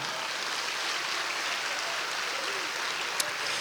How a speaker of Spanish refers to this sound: Dale un aplauso a Dios por eso, amado hermano.